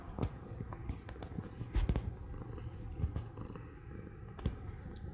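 A cat sitting on a person's lap purring, a steady low rumbling drone with a soft, pulsing rhythm and occasional faint clicks, continuing throughout without any voices.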